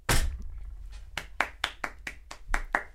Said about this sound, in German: Applaus.